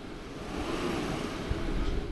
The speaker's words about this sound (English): And that's the sound of the motor moving the bed up and down.